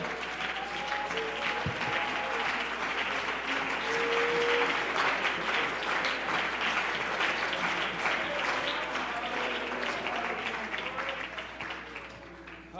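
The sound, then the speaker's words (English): A church audience clapping together to praise Him before being seated, in a loud, sustained burst of dense applause that holds steady for several seconds, with faint voices and cheers mixed underneath before it starts to taper off. “Come on, why don't we praise him with a hand clap before we're seated?”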